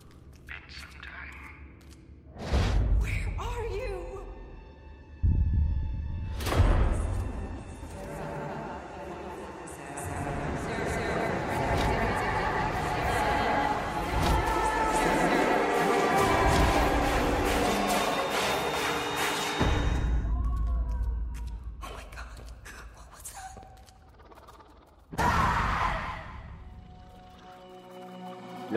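A tense soundscape from the virtual reality horror game Daylight, built on Unreal Engine 4 with native Oculus Rift support: sudden heavy booms punctuate a dense, swelling wash of eerie noise and whispery textures, with sharp jolts near the start and again toward the end.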